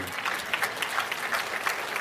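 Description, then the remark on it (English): A crowd claps steadily, many hands blending into a dense, continuous patter of applause with small swells in intensity and no voices standing out. “Can you clap your hands and say amen?”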